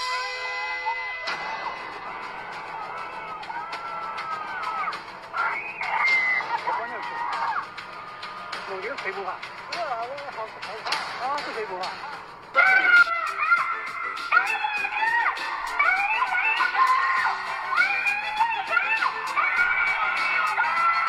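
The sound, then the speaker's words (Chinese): A shrill, high-pitched, prerecorded female voice screams and shrieks continuously, played on a loop through a high-volume loudspeaker in a field in Ji'an, Jiangsu, to drive away wild boars, with harsh, distorted wailing that rises and falls and grows louder partway through. “村民听到之后，还以为是哪个女子啊这么凄惨的大叫啊，立即报了警。”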